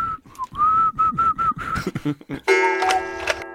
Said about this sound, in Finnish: Musta tuntuu, että sä osaat vihellyskieltä vaan niinku baaritarkoituksiin.